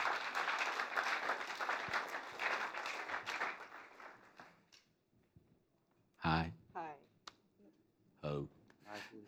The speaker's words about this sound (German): Gebt ihnen ganz einen warmen Applaus